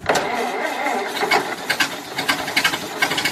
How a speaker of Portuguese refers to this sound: O seu carro anda fazendo esse barulho?